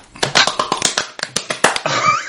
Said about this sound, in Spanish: Solito se aplaudió la estúpida.